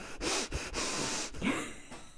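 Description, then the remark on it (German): A voice imitates a woman's frightened, heavy panting from a horror film in which the characters film themselves: rapid, breathy gasps in close succession with brief catches between them, loud, with no words spoken. “Und dann schnauft sie so, in, so in, hörst du immer so”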